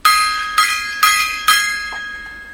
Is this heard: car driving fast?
no